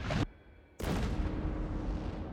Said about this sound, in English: And not a second too soon, the Eagle unleashes a full broadside against the pirate sloop.